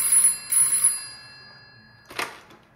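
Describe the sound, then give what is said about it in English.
Detective Barkley's telephone bell rings twice in quick bursts, bright, its metallic tone lingering and fading, followed by a short clatter. “Just then, Detective Barkley's phone rang.”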